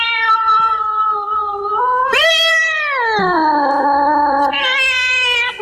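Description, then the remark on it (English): A cat yowls in one long, loud caterwaul, a sound effect track called The Cats from a haunted house sound effects album. Its wavering cry rises sharply in pitch, slides back down, then swells again near the end, with no talking. “And probably your favorite, Sam, would be The Cats, though.”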